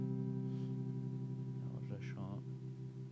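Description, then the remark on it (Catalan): A sustained electric guitar tone rings steadily with a tremolo effect wavering its volume, while a voice briefly speaks over it near the end. “que ja veieu que podeu regular la vibració més ràpida, més lenta, més profunda, més suau, amb la ona més tallada o més suau també, aquí més tallada i aquí com més suau.”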